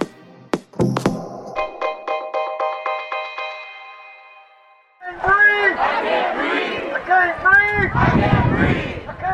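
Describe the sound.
A large Black Lives Matter protest crowd chants the slogan "I can't breathe" in unison, many loud voices shouting together over the second half, after a brief electronic musical sting and a fading tone.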